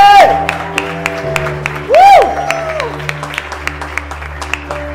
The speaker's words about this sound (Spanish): Ahora quiero que le den un verdadero aplauso como se lo merece el Rey de Reyes y Señor de Señores. Vamos, fuerte.